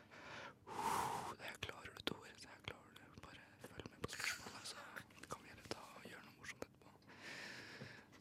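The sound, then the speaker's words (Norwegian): A voice imitates slow, calm breathing into someone's neck as they sit taking a test, with several soft, airy breaths spaced a few seconds apart and faint clicks and rustles between them. “Så kjente jeg sånn rolig pusting i nakken.”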